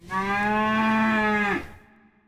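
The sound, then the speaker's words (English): A single loud cow moo, a steady low bellow held for about a second and a half before cutting off, with no voices around it. “And massage our cows every day so they produce the finest milk for our cheeses.”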